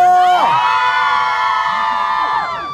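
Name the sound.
audience cheering and shouting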